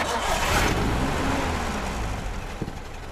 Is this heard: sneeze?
no